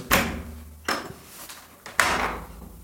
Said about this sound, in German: Ist mir zu warm, da machen ja. die Tür auf.